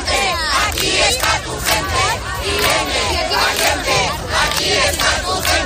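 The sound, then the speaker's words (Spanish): A large crowd at the head of the Comisión 8M demonstration chants the name Irene in unison, many loud voices, the rhythmic chant repeating steadily over a constant roar of the gathering. “y eso que Irene no está, pero sí que es la protagonista, es sin duda lo que está cantando la gente en este arranque de la cabecera de esta manifestación de la Comisión 8M.”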